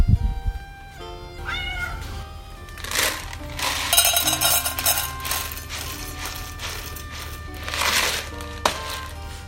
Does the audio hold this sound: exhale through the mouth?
no